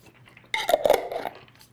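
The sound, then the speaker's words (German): Fancy-looking hard candies tasting of banana and strawberry, tried for the first time, being chewed: a brief, loud burst of crackly crunching that lasts under a second, with no one talking, then quiet again. “So, er futtert fröhlich vor sich hin.”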